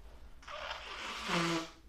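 A nose being blown for about a second, a breathy, hissing rush of air that ends in a brief low honk. It's fairly soft, with no talking.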